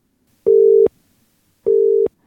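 A telephone ringing tone on an outgoing call to an interviewee, a researcher: two short, steady, mid-pitched electronic beeps, evenly spaced with a pause between them, with no voices.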